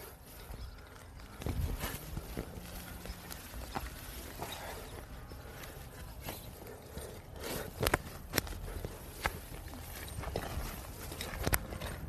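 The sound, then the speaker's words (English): A Mustang mare of about 8 to 10 years walks, her hooves clip-clopping in sharp knocks that land in an uneven rhythm over a steady outdoor hiss, with a few louder strikes standing out. “Man, she's really turned out to be pretty alright horse.”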